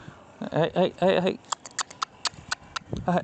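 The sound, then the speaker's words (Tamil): A voice imitates a herder driving cattle along: a few short, loud "Ae!" calls, then a quick series of sharp tongue clicks, ending with another brief call. “ஏ அப்படின்னு சொல்லிட்டு விரட்டுவோம் பார்த்தீங்களா”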